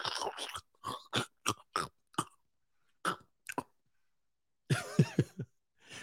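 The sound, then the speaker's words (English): A voice imitates loud, crunchy chewing of a bag of pork rinds: a quick run of sharp, snappy bursts, a brief pause, a few more crunches, then a short voiced, mouthy flourish, with no other sounds. “You eating a bag of pork rinds like”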